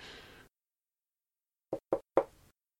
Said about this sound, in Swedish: Det knackade på dörren.